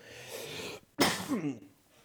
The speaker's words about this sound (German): Entschuldigung für das Husten.